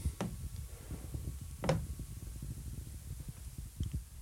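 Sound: door opening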